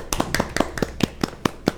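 A quick, steady run of hand claps in applause, roughly eight sharp slaps at an even pace, moderately loud with no voices over them.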